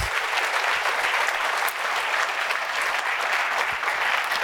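A festival crowd gives a big round of applause to a guest, a dense, even wash of many hands clapping at a constant loud level throughout, with no voices standing out.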